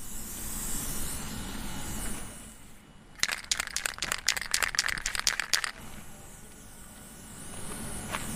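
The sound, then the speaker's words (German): A spray can hisses in a quick series of short, rattly bursts for a couple of seconds as someone sprays the lettering "Von Athen gelernt" onto a large fabric banner on the sidewalk outside a villa, set against a steady wash of outdoor background noise before and after. “Auf eines sprüht jemand den Schriftzug Von Athen gelernt”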